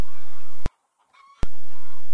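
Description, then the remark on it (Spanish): A loud, dense chorus of young chickens peeping, interrupted by two sharp clicks around a brief quieter stretch where fainter peeps continue. No one speaks. “Pasaban y se escuchaba el piar de sus congenes aún más fuerte.”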